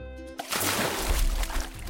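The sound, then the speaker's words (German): Water is poured onto a canvas in one continuous rush, a broad splashing hiss with a low sloshing rumble that swells and lasts about a second and a half after a brief steady tone. “Ui, jetzt ist die Leinwand aber ganz schön nass.”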